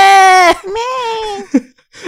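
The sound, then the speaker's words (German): A person imitates baby goats bleating, with a loud, sustained cry followed by a longer, quavering one and a brief squeak. There is no other sound. “Und ich finde es so sweet, wenn die anfangen zu schreien.”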